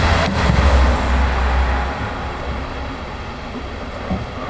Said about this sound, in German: Oh, Zug. Das ist der erste Zug und womöglich auch der letzte in dieser Folge.